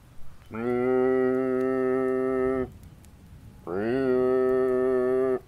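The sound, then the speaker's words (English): A person's voice imitates a ship's foghorn with two long, steady, low droning blasts, each about two seconds, separated by a short pause. The blasts are loud and heard alone, with no talking. “That wasn't a very convincing foghorn, was it?”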